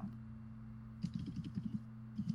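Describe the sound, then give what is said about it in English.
Quick, uneven bursts of key clicks as someone types fast on a computer keyboard, a rapid flurry of taps over a low steady hum with no talking. “Look at who's typing. I hear fast fingers.”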